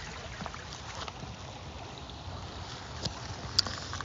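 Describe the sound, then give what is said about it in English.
A steady wash of flowing creek water in a small pocket of woods in Seattle fills the background, soft and continuous, with a couple of brief splashy ticks near the end and no voices. “It's like so quiet. And you can just listen to the creek all day.”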